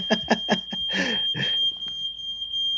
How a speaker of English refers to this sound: Oh, I've got an alarm going off.